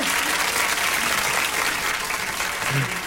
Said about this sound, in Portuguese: Cadê as palmas?